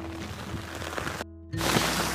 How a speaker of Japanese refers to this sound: うわすごい雨。あの、これ、音がどうなってるかわからないですけど、まあ、めちゃくちゃすごい雨で、多分5、6ミリぐらい、いつも歩いてる道が、あ、こう、水の中、もう、何て言うんですかね水で埋まってるというか